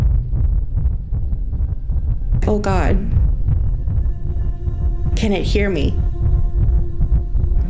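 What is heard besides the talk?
loud heartbeat sound effect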